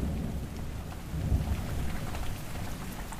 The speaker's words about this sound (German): Es schüttet, als wäre die Sintflut über die Stadt hereingebrochen.